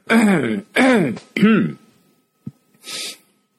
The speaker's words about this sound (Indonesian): Ini agak batuk-batuk teman-teman.